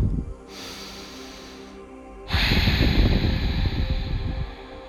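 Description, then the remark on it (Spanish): A single deep breath: a soft, airy inhale lasting over a second, a brief pause, then a longer, louder whooshing exhale. No one speaks. “Toma una respiración profunda.”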